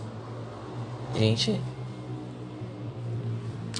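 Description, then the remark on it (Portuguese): A motorcycle engine drones steadily in the background, a low rumbling hum that persists throughout, while a person briefly says a word over it. “Desculpa o barulho de moto, eu fiz aqui, ó”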